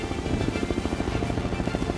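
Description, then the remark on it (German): A helicopter thunders directly overhead, its rotor blades chopping in a fast, steady rhythmic beat with a loud, dense roar and no voices. “Dann, als der Hubschrauber ihm direkt über den Kopf fliegt, hört Mauro auf, hin und her zu tanzen.”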